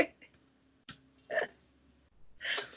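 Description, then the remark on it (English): A few short burps pop out one at a time with quiet gaps between them, the last one a bit longer and louder than the rest. “burp. Burp. Burp.”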